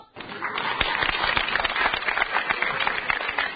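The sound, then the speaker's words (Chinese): Enthusiastic audience applause for a stage performer in Jilin: a dense, steady crackle of many hands clapping at once, loud and sustained for several seconds with no voices on top. “就从观众今天这么热烈的掌声，今儿的戏就好唱了。”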